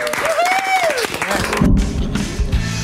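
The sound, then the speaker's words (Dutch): Studio audience applause during a festive TV broadcast after the grand final of The Voice Kids builds into a dense, steady roar of clapping after a brief rising and falling whistle-like tone, with crowd voices mixed in throughout. “Applaus voor de helden.”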